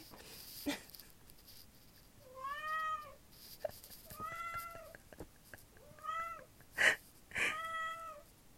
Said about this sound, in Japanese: そこで爪研ぎしないで